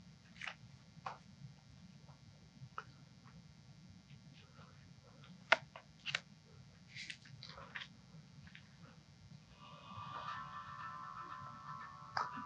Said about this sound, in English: That is a cool ringtone. Funny thing is, I hear the ringtone, but I don't see anybody moving. Oh, is it yours?